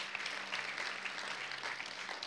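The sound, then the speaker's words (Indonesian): A crowd applauding steadily for Jesus, dense overlapping claps in a bright, continuous patter at moderate loudness, with a low hum underneath. “Kasih, kasih tepuk tangan yang meriah untuk Tuhan Yesus.”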